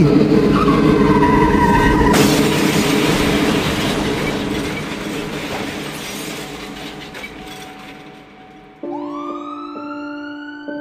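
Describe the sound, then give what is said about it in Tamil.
A vehicle driven too fast skids with a high tire screech and crashes into an oncoming lorry: a loud, crunching impact, followed by a long, fading roar of wreckage and engine noise. A siren rises near the end. “ஏய் இப்போ எதுக்கு நீ வண்டியை ஃபாஸ்ட்டாக ஓட்டுற டே முன்னாடி லாரி வருதுடா உனக்கு தெரியுதா இல்லையாடா வண்டியை ஸ்லோ பண்ணுறா”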